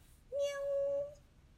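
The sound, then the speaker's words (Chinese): A single drawn-out cat meow, steady and fairly high-pitched, holding for nearly a second before trailing off, heard as a children's story time introduces the storybook 'The Cat Who Can't Catch Mice' (不会抓老鼠的猫); no talking around it. “今天要和大家分享的故事书是《不会抓老鼠的猫》。喵。”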